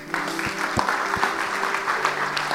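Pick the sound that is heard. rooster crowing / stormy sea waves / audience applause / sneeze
audience applause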